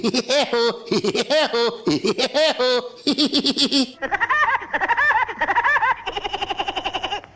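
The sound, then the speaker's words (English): A loud, rapid, high-pitched laugh of a cartoon woodpecker character in staccato bursts, voiced by a person imitating a woodpecker, ending with a quick rattling series of pecking taps added at the end. “never knowing that this would turn out to be the voice of Woody Woodpecker”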